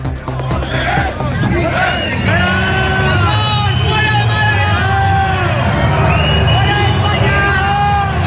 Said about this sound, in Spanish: El presidente del Ejecutivo en funciones se ha dado ese baño de masas, pero no ha podido evitar los abucheos de grupos de manifestantes en Málaga, que no mostraban mucho interés por recibirlo en casa.